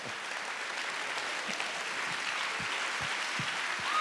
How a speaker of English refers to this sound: Let's give the Lord a hand clap of praise for everything he's done.